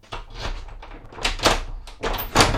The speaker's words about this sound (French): Et les voilà qui arrivent toutes les deux, sur place, rue de Prony, quartier chic du 17e arrondissement. Avec son double, la secrétaire ouvre la porte de l'appartement.